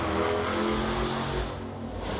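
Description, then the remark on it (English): A car engine revs hard as it peels out, a loud, steady roar with a deep rumbling tone that holds for about two seconds, with no talking. “Wow, that was um, somebody just um, what do they call it? Peeled out or whatever, revved up the engine.”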